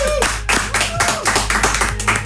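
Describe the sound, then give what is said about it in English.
A crowd breaks into dense, steady applause for an artist, many hands clapping at once in a bright, continuous patter, with whoops and cheers rising over it throughout. “Can I have some noise, please, for …?”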